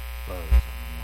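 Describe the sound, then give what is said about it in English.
A steady low electrical hum runs throughout, with buzzy harmonic overtones and a brief louder low thump around the middle, close and fairly prominent with no other sounds. “I was getting a bit of a hum. You hear that?”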